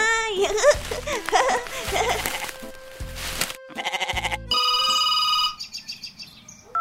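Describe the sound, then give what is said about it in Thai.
Several wavering goat bleats, then a telephone starts ringing with an incoming call: a steady, bright electronic tone that shifts into a quick, repeating warble. The ringing is clear, with no talking. “จู่ๆ ก็มีโทรศัพท์เข้ามาหาลุงทองดี”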